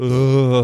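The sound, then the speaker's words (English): A single loud burp, voiced and throaty with a steady low pitch, lasting just under a second on its own with no talking around it. “Sorry, that was a burp.”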